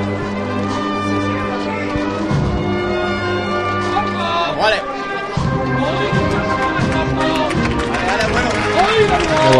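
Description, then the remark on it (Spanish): A street crowd on the carrera oficial applauds the passing borriquilla float of Jesús de la Salud, carried by costaleros; steady clapping and crowd noise blend with brass band music while a man talks over it. “andar costalero que levanta eh, los aplausos del respetable que se encuentra en esta zona de la carrera oficial.”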